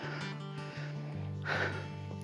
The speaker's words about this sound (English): My heavy breathing is the result of a steep incline. Trust me.